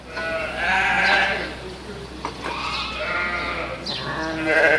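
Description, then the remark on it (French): A flock of 600 ewes bleating at the Grignon farm, several overlapping, wavering calls, fairly loud and continuous with no talking. “La ferme de Grignon héberge également 600 brebis, mais pour l'instant, elles ne font pas l'objet d'expérimentations sur le méthane.”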